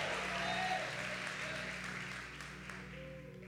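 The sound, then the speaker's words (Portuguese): A church audience applauds Jesus in a dense, steady wash of clapping with scattered voices and shouts mixed in, gradually easing off toward the end. “Se é para Jesus, coloca um glória aí junto com esses aplausos.”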